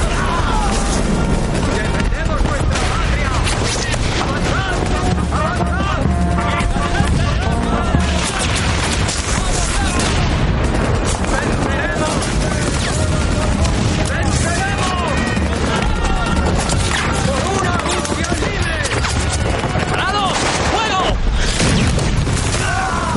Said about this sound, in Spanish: Varias explosiones lanzan por los aires a los soldados rusos.